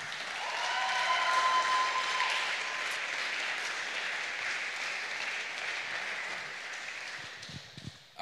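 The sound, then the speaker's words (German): Sustained audience applause for the church's pastors, a dense wash of clapping that holds steady for about seven seconds before thinning out, with a few cheers or whoops briefly rising above it early on. “Einen dicken Applaus für eure Pastoren.”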